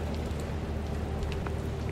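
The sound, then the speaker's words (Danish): Steady rain pattering down on a huge sailing ship with masts, a dense, continuous hiss of drops with scattered sharper taps, no voices present. “Nu regner det altså.”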